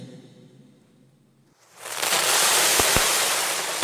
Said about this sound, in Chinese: 炮仗叮当叮当的响个不停，窗外还不时有很亮的火焰腾起，红的球、绿的球蹭蹭的往天上飞